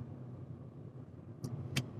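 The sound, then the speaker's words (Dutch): Steady low rumble of a car's interior while driving to Weert on a Monday morning, constant road and engine noise throughout, with two brief sharp clicks or ticks near the end. “En zit ik nu weer op maandagochtend in de auto naar eh, Weert.”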